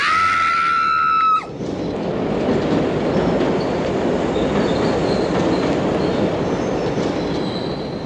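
A train pulls in at a crowded station platform with a piercing, steady metallic squeal of wheels or brakes that cuts off abruptly, giving way to a loud, continuous rumble and clatter of rolling carriages. No one speaks.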